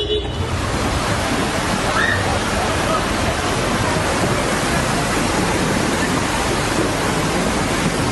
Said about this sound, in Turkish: Sonrasında deniz yükselmeye başladı. Seferihisar Sığacık halkı sarsıntının şokunu atlatamadan bu kez tsunami ile karşı karşıya kaldılar. Seferihisar Sığacık'ta su taştı.